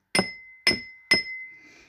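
A woman taps her ring against a glass three times in a steady rhythm at a birthday party, each sharp clink leaving a bright ringing tone that lingers and fades after the last tap, clear with no voices.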